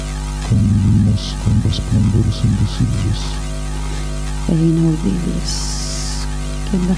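A steady electromagnetic hum drones throughout, with stacked harmonic tones, broken by bursts of buzzing, stuttering pulses and a short high-pitched whine near the end.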